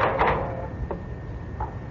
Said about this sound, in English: I had no key, so I rang the bell, hoping against hope my wife would be there to answer it. But when the door opened,